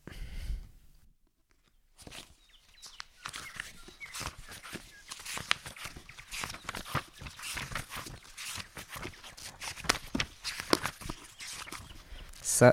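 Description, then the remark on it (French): Crisp rustling of the pages of a Pléiade-edition novel being turned, a steady run of soft papery swishes and flicks that begins after a brief quiet pause and continues irregularly to the end. “c'est le bruit des pages du roman Ulysse de James Joyce en collection Pléiade que je tourne”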